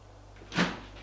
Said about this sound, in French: Il appuie sur le bouton pour ouvrir la porte.